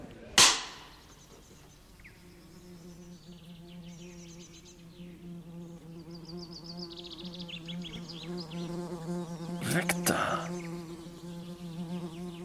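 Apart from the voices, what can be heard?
wasp buzzing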